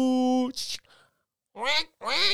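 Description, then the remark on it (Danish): A voice mimics cackling geese: a long nasal honk and a quick squawk, then a brief pause and two more loud, rasping honks. “så begynder de bare at skrabe, stille, så nu opdager alle, Martang, ligger du der mellem gæsten?”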